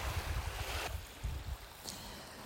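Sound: waves lapping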